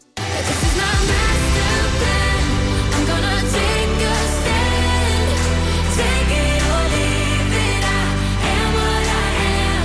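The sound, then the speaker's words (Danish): A loud, upbeat pop song, a Eurovision entry, plays continuously, with a steady driving beat, thick bass and layered synths filling the mix from start to finish, no talking over it. “… hedder den, og ved I hvad? Der er faktisk to danskere, der har været med til at, øh, at skrive den her”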